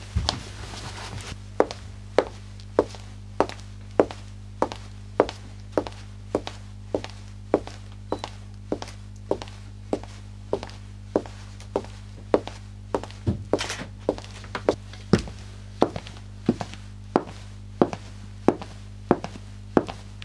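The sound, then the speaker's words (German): Foley footsteps performed standing, in shoes on a hard studio floor, dry, walking at an even pace with thudding heel-toe impacts, a brief scuffle near the middle, over a low constant hum. “Das sind dann so Schritte, die ich äh, eben gerne im Stehen mache, weil ich äh, dann irgendwie, ich weiß nicht, ich kriege dann die Haltung besser hin.”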